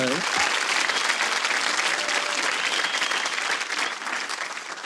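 A crowd applauds a guest as a program draws to a close, steadily for about five seconds, a dense, even roar of clapping that stays loud throughout and eases slightly toward the end.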